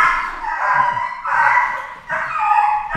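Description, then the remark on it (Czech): Dogs fighting again, loud and frantic: strained, howling yelps and snarling barks come in three long, overlapping bursts with barely a pause, and no one speaks. “Mí psi se porvali zase. Strašný, pardon, asi jste slyšeli ten dřev, ale už je to po všem.”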